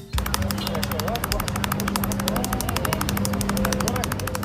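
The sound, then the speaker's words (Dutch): Rapid one-handed clapping by the Iraqi former record holder, fingers slapping the palm of the same hand in a very fast, steady stream of sharp snaps, over fourteen a second, running throughout over a low steady hum. “Daarbij slaat u met uw vingers van uw hand op de palm van dezelfde hand.”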